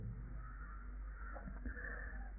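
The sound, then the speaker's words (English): Faint crow caws come through a low background hum, a few harsh calls from outside with no one speaking. “So Maybe we use the nada sound as an object, or we listen to the crows, the rooks, and the pigeons, and the other birds.”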